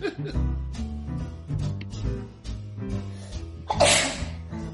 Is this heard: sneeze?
yes